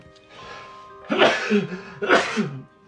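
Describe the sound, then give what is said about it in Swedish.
Two loud, explosive sneezes in close succession, each a sharp breathy burst with a voiced edge, separated by a brief pause and preceded by a soft inhale. “Ja, det var mycket nysningar där.”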